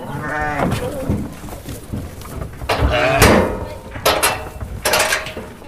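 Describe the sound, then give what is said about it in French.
Several sheep used by the town for a week-long eco-grazing trial, supplied by the company Alternature, at the Neuland nature observatory, bleat several times in quick succession, a wavering call at the start followed by further shorter bleats, fairly loud, with some background farm noise. “Durant une semaine, la ville mène une expérimentation d'éco-pâturage grâce à plusieurs moutons mis à disposition par la société Alternature.”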